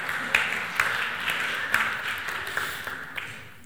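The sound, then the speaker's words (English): Sparse, scattered clapping from a few people, with isolated claps spread out over a few seconds against a faint background murmur, never building into full applause; community group members clapping when asked to at a church gathering. “Uh, if you are in a community group, you should clap right now.”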